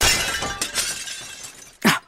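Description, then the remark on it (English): A pane of glass shatters after someone leans on it, with a bright, crashing burst, followed by scattered tinkling shards and a second sharp clatter near the end as pieces hit the ground. “I told you not to lean on it. Sorry. Can glass be fixed?”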